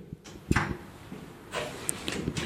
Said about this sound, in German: Ich bin heute hier gleich gegenüber vom Hauptbahnhof in einem Gemeindebau im Südtiroler Hof, Wiedner Gürtel 38 und ich bin da schon im Dachboden angelangt und äh, ich mache jetzt da die Türe auf.